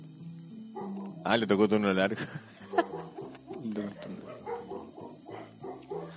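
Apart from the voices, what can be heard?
dogs barking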